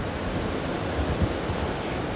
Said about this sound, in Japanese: 外のテラスでポッドキャストをレコーディングしています海の波の音聞こえますでしょうか